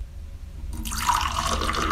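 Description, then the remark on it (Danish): After a quiet start, iced tea splashes into a glass of ice cubes, a steady pour whose pitch rises as the glass fills. “Ej, der, der kan jeg nærmest se isterningerne danse rundt.”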